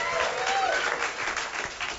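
Loud, dense hand clapping from an audience fills the whole moment, a steady wash of overlapping claps with a few faint voices and a brief whoop mixed in.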